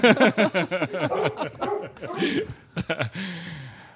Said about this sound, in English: Look at the, the dog just called bullshit on me.